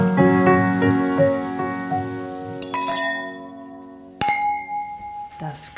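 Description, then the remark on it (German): Glasses clink together in a toast among three people sitting at a table, bright ringing chimes that sustain and overlap, followed by a second sharp clink near the end, with faint background voices murmuring. “Stoß mal gleich nochmal an.”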